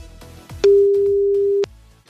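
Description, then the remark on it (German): A single one-second ringback tone from an outgoing phone call to a mobile number, dialed on a digital phone pad: a steady, clear electronic beep that starts and stops abruptly, then silence waiting for the next ring. “Noch zweimal tuten.”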